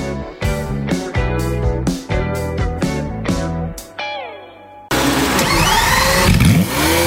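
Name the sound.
car engine starting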